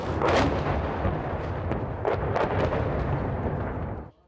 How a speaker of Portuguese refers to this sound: Na cidade ucraniana de Mariupol, um hospital superlotado tenta proteger recém-nascidos. Do lado de fora do hospital, o som dos ataques.